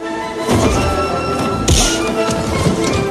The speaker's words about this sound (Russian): удары смешно озвученные отмечены вот этим вот громким звуком, который, конечно, в жизни не исходит, когда ты бьешь кого-нибудь по лицу, а в Индиане Джонсе и в новом, кстати, тоже вот эти вот громкие удары, как у Джеки Чана.